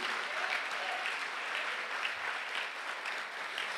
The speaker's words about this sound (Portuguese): Aplauda Jesus. É para Jesus, não é para mim. É para Jesus.